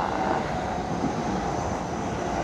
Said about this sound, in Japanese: はいしばし電車の音をお楽しみください。